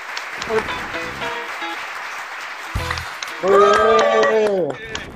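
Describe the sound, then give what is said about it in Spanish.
An audience applauds with steady, dense clapping throughout, welcoming two female guests, joined by cheering and whoops; a strong voiced shout rises over the applause near the end before it thins out. “Así que un fuerte aplauso, por favor, para las chicas.”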